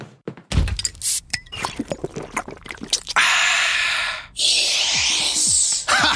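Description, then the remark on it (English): A can of Coca-Cola is cracked open with a few sharp clicks and thunks, then a loud, steady fizzing hiss follows as the Coke is poured and gulped. “That wasn't sound effects. That was a Coke.”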